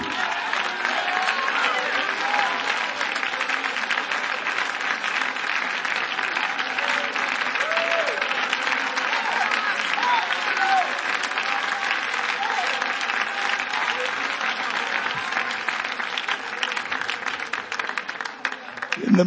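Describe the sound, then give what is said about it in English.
A large crowd bursts into sustained, loud applause, a dense wall of clapping that continues steadily for about twenty seconds, with scattered cheers and voices mixed into the roar. “And you ought to give God a thundering round of applause because he has confidence in you.”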